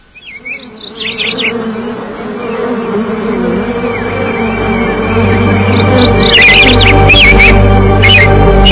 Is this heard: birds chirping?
yes